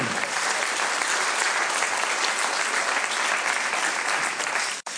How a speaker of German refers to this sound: Applaus für alle mutigen Kinder und einige sind heute auch hier.